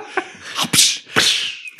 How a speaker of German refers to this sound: Also, oder überhaupt so eine Schnalz, Peitschenschnalzgeräusch bei einem Tritt.